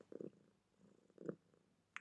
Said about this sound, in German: Meine Katze ist wieder dabei und schnurrt und schnurrt und schnurrt.